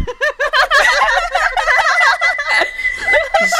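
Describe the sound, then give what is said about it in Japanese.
A whistle blown by a person imitating a Japanese bush warbler, loud, in a continuous run of rapid, wavering trills and chirps lasting a few seconds, with no voices. “いいえ、あれは、ウグイスを真似ている”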